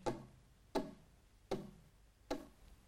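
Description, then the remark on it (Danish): A small bird taps on a window pane, trying to get inside while snow falls outside: four sharp, hollow knocks at a steady, unhurried pace, clear with no voices. “Så han rejser sig op og kigger ud af vinduet og ser en lille fugl forsøge at komme ind.”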